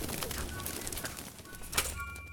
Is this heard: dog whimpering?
no